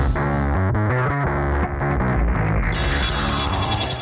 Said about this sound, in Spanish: Y pues ahora vamos con esta tremenda cortinilla.